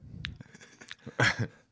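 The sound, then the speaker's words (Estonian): Crunching of a hard throat lozenge being chewed, with a few sharp brittle cracks followed by a louder burst of grinding crunches near the end. No talking. “mul oli loseng, ma nüüd närin, et ta alla näidata.”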